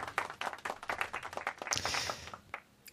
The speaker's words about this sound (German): Applaus. Applaus. Das äh, können wir jetzt einspielen an dieser Stelle.